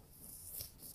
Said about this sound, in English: Sorry about the noise. The guy's waxing his board.